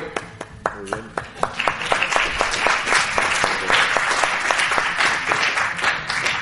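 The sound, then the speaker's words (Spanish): An audience bursts into applause, starting with a few sharp, rhythmic claps that quickly swell into a dense, steady wash of clapping from many hands, sustained at a fairly loud level throughout. “El aplauso que sea para todos, porque si me aguantáis después de lo que hemos llevado todo el día, es que soy, vamos, la bomba.”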